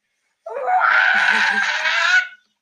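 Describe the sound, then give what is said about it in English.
A single shrill, warbling electronic scream from a small robot, loud, wavering for nearly two seconds before cutting off abruptly, with no other sounds around it. “I had to include the scream.”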